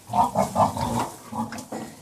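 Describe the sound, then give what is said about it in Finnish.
Pigs grunting at a pig farm in the countryside, a run of low, rough grunts and snorts in quick succession with a few brief pauses, moderately loud, with no talking. “Tuolla Sitran lobbausreissulla mä pääsin vierailemaan eräällä sikatilalla.”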